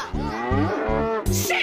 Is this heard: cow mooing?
yes